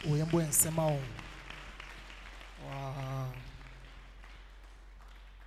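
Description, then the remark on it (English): An audience claps for two men in a steady, soft crackle that runs through the whole clip, while a voice exclaims briefly at the start and another vocal sound rises midway. “Clap for these two guys.”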